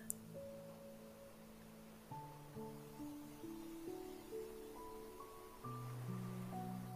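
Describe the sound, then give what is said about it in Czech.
A steady, soft wash of gentle sea waves fills the background beneath calm, sustained synth-like music tones, with no voices and an even, unhurried level throughout. “Nyní obrať pozornost na něžný rytmus mořských vln.”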